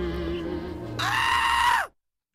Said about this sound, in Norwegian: Det over, over, kommer overraskende på, det, det, skriker på slutten der.